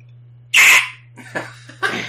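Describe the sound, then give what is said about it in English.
A person makes a shrill, raspy inhaled screech imitating a pterodactyl: one loud, harsh burst, followed by two shorter, fainter rasping breaths over a low steady hum. “It, I I think it's a pterodactyl noise.”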